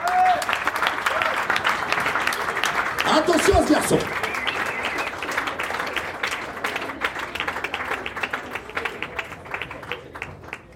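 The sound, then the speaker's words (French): Steady, dense applause from a crowd welcoming a runner on the eve of a race continues for several seconds, with a voice speaking briefly over it before the clapping thins toward the end. “Je vous demande de l'applaudir très fort”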